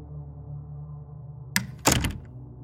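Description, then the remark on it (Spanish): A door thuds shut, then a second, heavier clunk follows about a third of a second later as the door is locked, over a low steady hum. “Apenas entré, cerré con seguro.”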